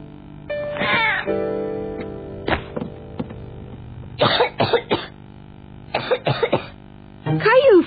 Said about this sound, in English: felt hot and was coughing. And he knew what that meant. He had the flu.